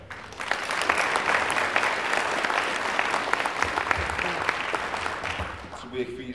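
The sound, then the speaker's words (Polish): A crowd claps steadily for several seconds, dense and fairly loud, welcoming the first speaker at an event, with the applause tapering off near the end as a voice starts to come in. “Dziękuję bardzo za uwagę i powitajmy brawami”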